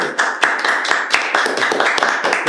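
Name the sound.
applause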